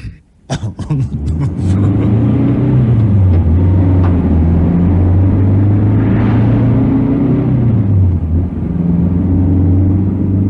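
car engine driving away

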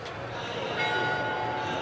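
church bells ringing

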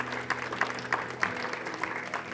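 audience round of applause

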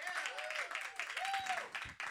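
audience clapping

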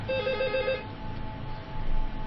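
telephone ringing

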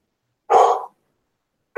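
dog barking

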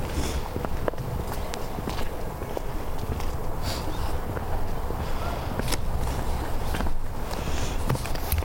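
footsteps of someone walking

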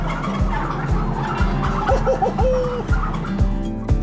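turkeys gobbling

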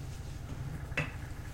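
glasses clinking

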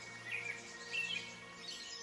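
birds chirping

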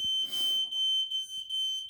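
fire alarm beeping

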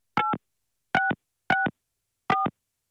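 telephone dialing tones

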